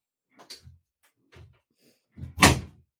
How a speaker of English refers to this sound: Well, let me just close the door.